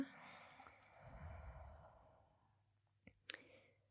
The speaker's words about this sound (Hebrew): כאילו, בוא'נה, מי שרוצה יכולה לעשות את זה איתנו, כזה אפשר רגע לעצום עיניים אפילו. ופשוט ניקח רגע נשימה לאט, לתוך הגוף, ונוציא אותה.